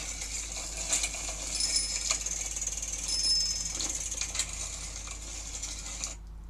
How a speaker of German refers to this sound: Richtig, das ist das Fahrrad. Das Fahrrad, mit dem man Fahrrad fährt. Genau, das Fahrrad.